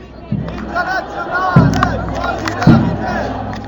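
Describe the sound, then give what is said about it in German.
A large crowd of voices chants outdoors in unison at a demonstration against deportation in Mannheim, with loud rhythmic shouts rising every second or so over a steady din of many people. “Bericht von der Demo gegen Abschiebung in Mannheim”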